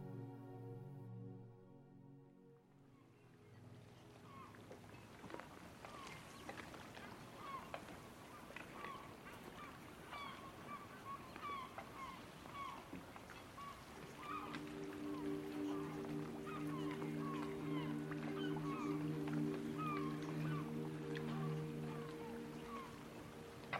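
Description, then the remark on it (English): Faint, scattered seagull cries sound in the distance over a low, steady harbour ambience in Bar Harbor, Maine, a coastal US town, on a summer evening; about halfway through, a droning boat engine hum joins in underneath. “The air is refreshingly salty, and you can hear the cries of seagulls faintly in the distance.”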